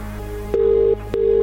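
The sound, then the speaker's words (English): A phone line ringing out on an outgoing call: two steady, buzzing ring tones with a short pause between them, fairly loud over a low background hum, with no voices. “you will need to answer your phone within five rings.”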